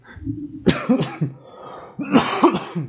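A loud burst of coughing in two fits: a cluster of harsh coughs, a short pause, then another rough round of coughs with some throat clearing.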